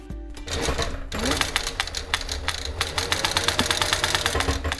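A sewing machine made specially for leather work, operated by a young woman in a spacious workshop with rolls of leather, runs steadily, its needle producing a rapid, even clatter of stitches with a low mechanical hum beneath, fairly loud and continuous throughout.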